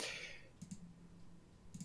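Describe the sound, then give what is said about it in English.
Faint keyboard typing: two quick pairs of soft key clicks, separated by about a second of near silence with a low hum underneath, and no one speaking. “Oh, you're typing.”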